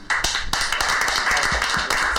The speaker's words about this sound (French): Une sœur, et on va l'applaudir.